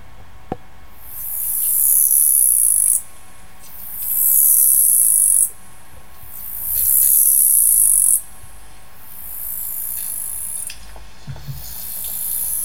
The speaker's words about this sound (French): Par exemple de ce que vous avez pu enregistrer sur l'île de la Motte Par exemple, ça c'est un son magnifique, enfin je trouve que je trouve vraiment magnifique de grillon de nuit.